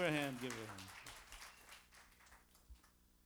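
Audience applause breaks out after a short held tone: a dense, steady patter of many hands clapping that gradually thins and softens toward the end.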